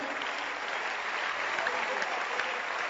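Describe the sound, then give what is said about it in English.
A crowd applauds the man projecting the scriptures, a dense, continuous wash of clapping, sustained for the whole stretch without a clear break or voice on top. “Clap again for him.”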